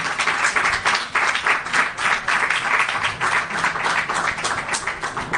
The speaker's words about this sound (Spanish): Bueno, Gracias a los muchachos. Gracias este, a los gracias por venir. ¡Fuerte aplauso!